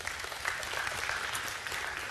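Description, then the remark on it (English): A church audience at Springs Church claps after a communion homily on a Sunday morning, a dense, continuous wash of many hands applauding at a fairly strong level with no speech over it for the full two seconds. “And you should cheer all the more loudly for her because this is her final Sunday with us here at the Springs.”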